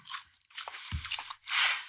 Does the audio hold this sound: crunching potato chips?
yes